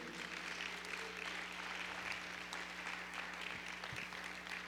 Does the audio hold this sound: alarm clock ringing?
no